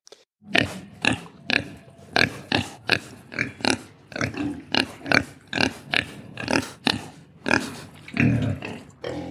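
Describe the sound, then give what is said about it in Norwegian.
A large wild boar grunts over and over in a steady, rhythmic series of about two rough, snorting grunts per second, loud and harsh, with no voices. “Den andre var en eh, andre tingen de påkalte, var en svær og vill galte.”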